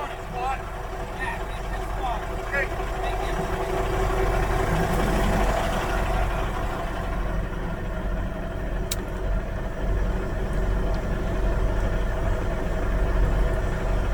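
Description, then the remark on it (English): A vehicle engine idles steadily while waiting, a constant low rumble with a faint hum on top, holding an even level throughout with no revving or driving off. “Yeah, our pilot car is here and we're going to sit out just another minute.”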